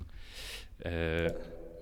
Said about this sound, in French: Là, euh, c'est la réverbération. Ah, la réverbération de, l'église Saint-Nicaise. Donc, je suis allé tout simplement avec mes micros au milieu de. Ah, à la croisée du transept. Euh, et j'ai tapé avec deux livres euh, assez forts, donc ça fait